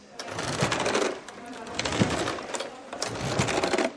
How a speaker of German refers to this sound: Es hört sich an wie eine schlecht geölte Holzschaukel. Aber das Gerät schwingt sich nicht in luftige Höhen. Zwei Kursteilnehmerinnen versuchen, die sogenannte Hauruckbank vorwärts zu bewegen.